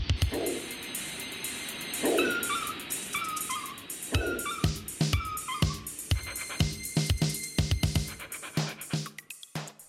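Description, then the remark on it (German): A small dog, brought out of a house by a servant, yaps and whines in a quick, uneven series of high-pitched barks and whimpers, with some scratching or shuffling between the yelps and no one talking. “Der Lakai bringt aus dem Haus ein Hündlein, das, wie es scheint, hier verpflegt und geheilt wird, und das der königliche Herr im gelben Sommerhut zu sehen gewünscht hat.”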